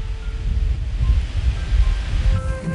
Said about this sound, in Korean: 사각사각 바람이 지나가는 호밀밭 소리가 들리시나요?